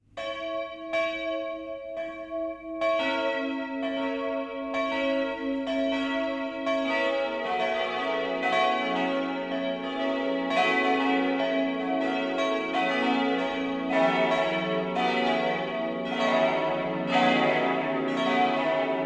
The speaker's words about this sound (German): Es ist 12 Uhr. Das Mittagsläuten kommt heute von der katholischen Pfarrkirche St. Heinrich im oberfränkischen Bamberg.